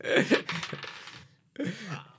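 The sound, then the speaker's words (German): A die clatters and tumbles across a hard tabletop in two short rattling bursts separated by a brief pause, fairly loud, with faint vocal sounds mixed in; it is rolled to set how much time a person gets to introduce themselves. “Wir haben dafür beim Marketisch einen Würfel, wo ihr dürft eure Zeit, zum euch selber, eure Firma, was ihr möchtet, denen Zeit vorstellen, die ihr würfelt.”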